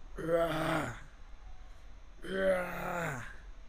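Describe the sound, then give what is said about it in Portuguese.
A voice imitates loud shouting heard at a gym, with two drawn-out, strained vocal bursts about a second long each, separated by a brief pause. No words are spoken. “E aí, velho, eu tava lá malhando de boa com meu fonezinho de ouvido, do nada eu escuto uma gritaria assim, eu, velho, que estranho, né?”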